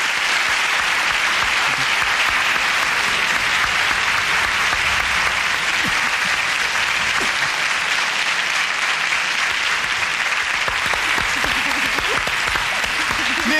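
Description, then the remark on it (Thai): Sustained applause from a large audience at a live show fills the whole stretch, a dense, steady wash of clapping hands that stays loud and even from start to finish with no voices standing out. “เสียงปรบมือและเสียงกำลังใจจากท่าน เป็นสิ่งที่ผมต้องการที่สุดครับ”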